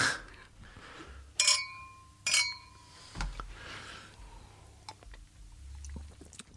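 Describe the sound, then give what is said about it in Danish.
Glasses clink together twice in quick succession in a toast, each a bright ringing tap that lingers briefly, followed by faint soft clatter and background noise with no one speaking. “Øh, skål på øh, blå ja, blinde. Ja, skål.”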